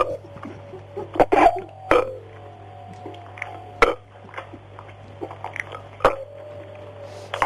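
Several loud, croaking burps come into the mic in uneven succession, with short gulps and mouth noises between them and a steady low hum underneath.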